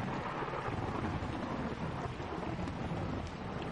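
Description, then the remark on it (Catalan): A heavy thunderstorm at its peak intensity: steady, dense rain pours down while deep rumbling thunder rolls underneath, loud and continuous throughout with no voices. “Aquesta tronada arriba a la seva màxima intensitat.”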